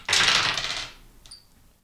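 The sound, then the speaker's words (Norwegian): A dense, bright clatter of dice rolled for damage in a game, tumbling across a hard tabletop, fairly loud, fading out after under a second, followed by one small faint click as a die settles. “Jeg må liksom velge riktig terning.”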